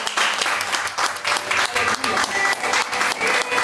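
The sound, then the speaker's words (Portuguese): A church audience applauds the name of the Lord at the end of a service, a dense, crackling wash of many hands clapping at once that holds an even, fairly loud level for the whole few seconds without letting up. “Dê um forte aplauso ao nome do Senhor.”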